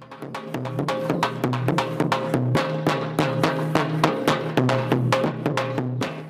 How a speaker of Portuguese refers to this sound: Zabumba!